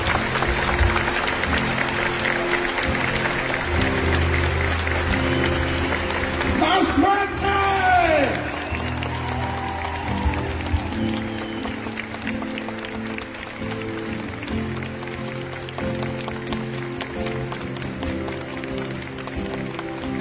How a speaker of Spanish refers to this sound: Y como confirmación de aquello, de ese deseo, vamos a darle un fortísimo aplauso a él y a ella, mi estimado Dios.